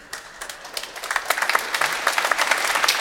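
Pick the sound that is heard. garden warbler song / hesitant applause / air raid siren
hesitant applause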